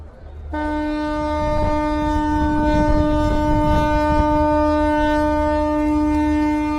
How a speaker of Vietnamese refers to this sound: Ba hồi còi chào cảng, tàu cảnh sát biển 8003 rời bến mang theo tình cảm, tình yêu của đất liền gửi gắm, đong đầy nỗi nhớ để ra với khơi xa bảo vệ Tổ quốc từ hướng biển.